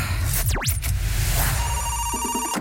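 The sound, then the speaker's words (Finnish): A phone ringing tone sounds over the line of an outgoing call, with steady electronic tones and short pulses after a couple of quick sweeping noises. Nobody speaks. “Toivotaan, että herra vastaa puhelimeen.”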